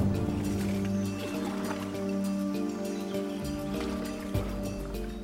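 A boat chugs steadily along a river, its engine producing a constant low hum, with occasional splashes and trickling water sounds.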